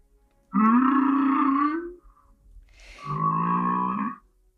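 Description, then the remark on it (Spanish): Two long, moaning calls of humpback whale song, each lasting over a second with a rich harmonic, slightly rising tone, separated by a short quiet gap. No voices are present. “Así que mm, escuchemos el canto de la Yubarta eh, dentro audio, por favor.”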